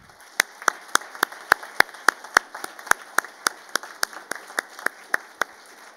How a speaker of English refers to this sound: So I wanted to take a moment to recognize all our men and women in uniform who are here with us today and around the world. If we could please have a round of applause for them.